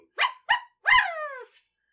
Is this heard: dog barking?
yes